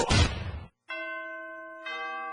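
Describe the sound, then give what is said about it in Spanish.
A short noisy burst gives way, after a brief gap, to bright ringing Christmas bells with long sustained tones, struck again near the end. They sound fairly loud, with no voices. “En la radio del diario ya se escuchan las campanas navideñas.”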